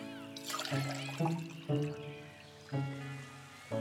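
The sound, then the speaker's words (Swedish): Juice pours into cups in several short bursts, a bright gurgling trickle whose pitch rises as each cup fills. The pouring is clear, with no voices. “Ja, svarade mamma Troll medan hon hällde upp saft åt Flisa och Sten.”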